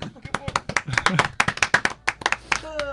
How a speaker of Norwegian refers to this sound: Takk skal dere ha. Liten applaus.